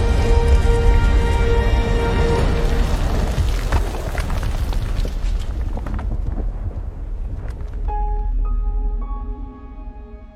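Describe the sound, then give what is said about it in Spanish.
A deep, continuous roar of a volcanic eruption, with heavy low booming rumble filling the whole stretch, while sustained musical tones sound over it at the start and end. “Las grandes erupciones volcánicas son raras, impredecibles y sumamente peligrosas.”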